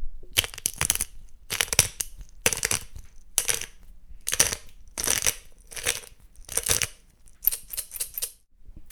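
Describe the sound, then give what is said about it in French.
A pepper mill grinds pepper into a stuffing mixture for filling leaves, in a steady series of short, gritty crunching bursts, about nine turns, fairly loud with brief pauses between them and no voices. “Et on va rajouter ensuite du poivre. Et puis ça va assaisonner notre mixture qu'on appelle farce qu'on mettra dans les feuilles.”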